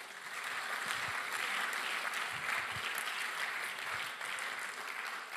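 An audience at a German-language sermon breaks into steady, sustained applause for Jesus, a dense wash of clapping that holds at an even level for several seconds with no one speaking over it.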